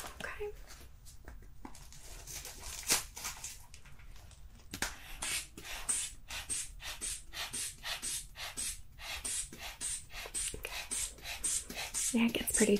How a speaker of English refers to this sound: So first, I'm just gonna get your blood pressure. Right. So just get ready to listen here. Grab my blood pressure cuff. I'm gonna put it on your right arm.